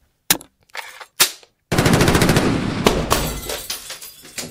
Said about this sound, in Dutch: anderen hebben weer het geluid van een mitrailleur in hun hoofd. Dat klinkt ongeveer zo.